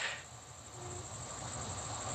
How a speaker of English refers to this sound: And the crickets are behind me. You can hear the crickets in the background and the sound of air conditioners. So it's a it's an intense place, Phoenix, especially in the summer.